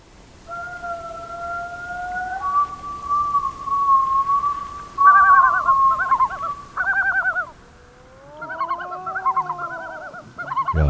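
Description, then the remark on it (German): Long, haunting wails from a tundra-breeding bird calling at its breeding grounds on small tundra lakes, steady mid-pitched tones that rise and hold, then break into loud, rapidly warbling yodel phrases, with several overlapping calls and no talking. “Wenn sie aber da, wo sie brüten, nämlich an so kleinen Seen in der Tundra, wenn sie da rufen, dann sind das ganz poetische, weittragende, heulende Laute oder manchmal auch jodelnd.”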